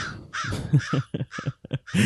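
A crow caws in a rapid, harsh series of about eight raspy calls, loud and close, with no one talking over it.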